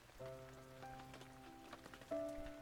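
Soft, scattered raindrops patter irregularly, their light ticks layered over quiet sustained musical tones, with no voices.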